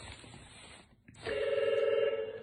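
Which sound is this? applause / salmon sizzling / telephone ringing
telephone ringing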